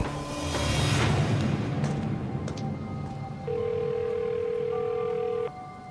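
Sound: phone call ringing unanswered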